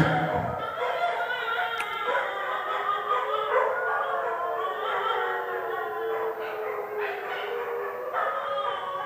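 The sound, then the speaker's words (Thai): Several dogs howl together in a long, wavering chorus of overlapping high-pitched wails, steady and loud for the full length, with occasional yips breaking through; no one speaks. “หมาพวกนี้ก็มีอุปทานนะ คือมันมันได้ยินเสียงแบบนี้อาการแบบนี้มันจะต้องตอบสนองทันที”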